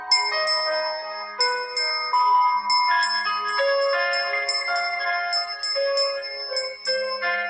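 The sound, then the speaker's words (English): Bells ringing in a steady, tinkling melodic pattern, with bright struck notes every half second or so and tones that ring on and overlap, clear and fairly loud with no voices. “Every time you hear the bell ring, your heart is beating with love and light.”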